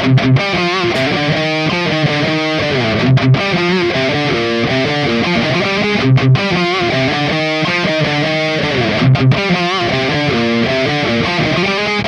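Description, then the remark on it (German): A heavily distorted electric guitar plays a chugging, palm-muted riff through an Engl Powerball amp and then a Peavey 6505 amp, both into the same Engl cabinet for comparison, loud and continuous with brief choppy stops, no voices present. “Ähm, einmal noch, mal den Engel Powerball an der Engelbox und danach kriegen wir einmal den Piwi 6505 an der gleichen Box.”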